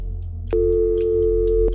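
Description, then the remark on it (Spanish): A telephone ringing tone sounds once over the line after a number is dialled, a steady electronic hum lasting about a second, framed by soft clicks at its start and end, fairly loud with no voices. “Por un momento el timbre sonó,”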